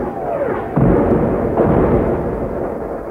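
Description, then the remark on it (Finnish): A rumbling artillery barrage with heavy booms landing in quick succession, deep low thuds rolling over one another in a continuous loud roar, no voices. “Keskityksen vielä jymistässä tulivat hauhian toverit.”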